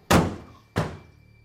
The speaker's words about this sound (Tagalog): Pero ilang minuto pa lang na nagtatagal sa pagriritual ang albularyo nang biglang bumukas ang pinto.